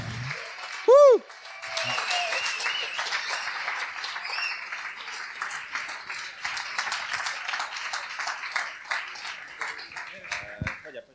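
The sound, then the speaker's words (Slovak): An audience applauds steadily for about ten seconds to welcome the people behind a film, a dense, even patter of many hands clapping, preceded by a brief loud whistle-like tone at the start. “Môžete aj silnejšie zatleskať.”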